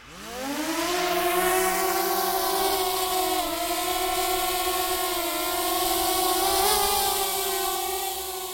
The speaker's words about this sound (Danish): Og ja, det er en drone.